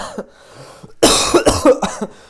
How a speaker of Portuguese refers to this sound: Lá está, eu agora até comecei para aqui a tossir.